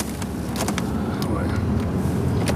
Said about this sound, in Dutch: We rijden door het industriegebied van Zeewolde, op een paar kilometer van de dorpskern.